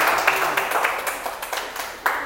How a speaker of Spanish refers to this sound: ¿Por qué no le das un aplauso a Dios? Porque hoy va a ser algo extraordinario.